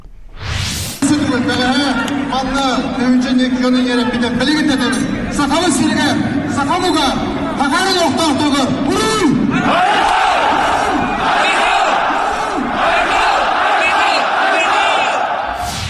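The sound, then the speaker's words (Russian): A large, loud crowd shouts and chants together in a dense roar of overlapping voices, sustained throughout, as people in Irkutsk protest against migrants suspected of a crime. “Вот э, э люди собрались против э, вот этой истории.”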